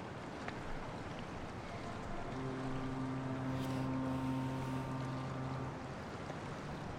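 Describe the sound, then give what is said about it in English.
Water laps gently and continuously against an edge in a steady outdoor wash, while a low droning hum rises in the middle and fades away. No one speaks. “Can we just highlight for a moment the excellent uh, ambient noise in the background of the water just gently lapping up against the mm-hmm. edge of the mm-hmm. thing?”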